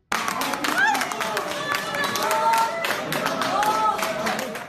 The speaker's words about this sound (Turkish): Bu sevinç çığlıkları, mutluluk gözyaşları uzun zamandır verilen bir savaşın eseri. Ankara Batı kentte sokak köpeklerini zehirledikleri gerekçesiyle 3 kişiye onar yıl hapis cezası verildi.